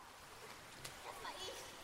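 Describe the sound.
Swimming pool ambience as a children's swimming group swims freely before showering: a steady wash of water noise with a brief splash as a girl jumps from the pool edge into the water, and children's voices faintly echoing in the background.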